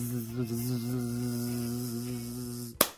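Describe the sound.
An actor imitates a mosquito's buzz with his voice as a sound effect for a scene, a steady droning hum that wavers slightly for nearly three seconds, then cuts off with a single sharp slap.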